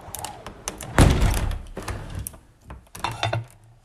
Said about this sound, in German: Ah, oh, so ein Mist. Diese blöde Tür.